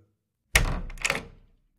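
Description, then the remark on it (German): A door is carefully opened: a sharp latch clunk, then a brief second rattle of the handle and a fading creak, with no voices around it. “Verhalten klopfte sie, hörte nichts und öffnete vorsichtig die Tür.”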